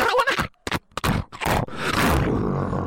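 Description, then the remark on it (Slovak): A voice imitates a tractor engine trying to start in the rain, with a few sputtering bursts and coughs that catch and turn into a steady, rough, loud rumble. “Konečne sa to podarilo. Môj traktor naštartoval.”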